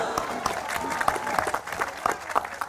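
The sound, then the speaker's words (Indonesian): An audience at a speech claps steadily, a dense wash of many hands with sharp individual claps poking through, sustained at moderate loudness. “Tepuk tangannya mana? Yang kenceng dong.”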